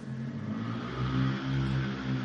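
A motorcycle engine revs right beside the speaker's house, a loud, steady growl that climbs in pitch midway and then holds, with no one speaking over it.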